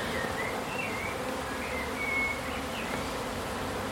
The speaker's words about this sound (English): Come up close to the swarm of bees. She says oh my god. Can you hear that? Whoa!